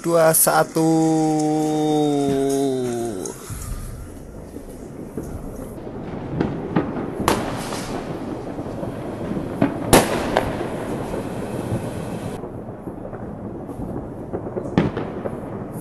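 A whistling tone rises and cuts off, then a constant crackle of firecrackers fills the air, punctuated by several sharp, loud fireworks bangs, set off on New Year's Eve into 2021 in Berlin.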